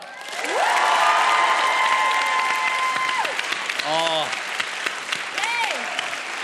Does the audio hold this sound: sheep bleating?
no